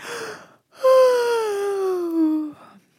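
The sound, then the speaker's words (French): A voice acts out a yawn: a short breathy inhale, a brief pause, then a long, drawn-out vocal sigh that slides steadily downward in pitch, clear. “Il fait mine de bailler”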